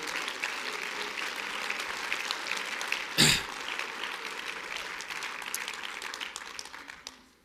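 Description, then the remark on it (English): A crowd claps hands to the Lord steadily in a dense, continuous patter for several seconds, with one sharp louder burst midway, then the clapping tapers off at the end. “Oh, clap your hands to the Lord right now.”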